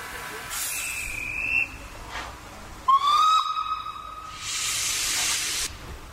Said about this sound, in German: Die Geräuschkulisse am Krefelder Nordbahnhof verrät schon, der Krefelder Schluff ist ein Nostalgiezug, der von einer Dampflok gezogen wird. Am schwarz-grünen Führerhaus steht der Name Graf Bismarck